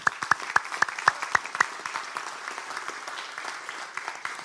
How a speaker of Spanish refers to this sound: Ah, hermano, ¿por qué no le damos un aplauso al Señor, hermano?